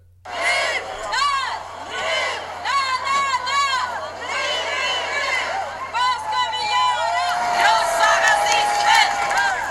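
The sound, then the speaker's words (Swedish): A large crowd at a planned demonstration against a Nazi march in Gothenburg, Sweden, shouting and chanting together, many overlapping voices rising and falling in loud, continuous waves, with a few higher sustained yells and whistle-like cries toward the end. “Det var ju en planerad demonstration.”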